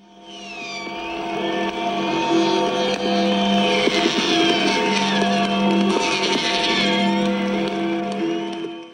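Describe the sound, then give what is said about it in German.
The Freedom Bell at the Reichstag tolls repeatedly with a deep, lingering hum at midnight on 3 October, while rockets and firecrackers crackle and pop throughout in the background. The scene sounds outdoors, with no talking. “Äh, und das ist die Freiheitsglocke vom Reichstag. Und die ganzen Nebengeräusche, das sind die Raketen und Böller”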